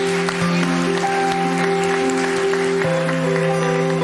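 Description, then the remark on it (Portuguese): A church audience breaks into steady, dense applause lasting several seconds, many hands clapping at once, while sustained keyboard chords hold underneath, celebrating 1,100 food baskets collected for the sertão. “Vamos dar uma salva de palmas aí.”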